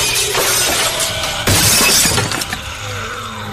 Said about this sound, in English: So you bring demon blade down on top of the box, and it shatters. It just explodes.